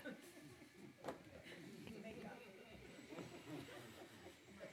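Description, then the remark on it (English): A coffee machine whooshes and hisses steadily for several seconds as it makes coffee, with a few brief louder bursts, fairly quiet, over a faint murmur of background voices. “Well, that would be the sound of the coffee machine whooshing coffee.”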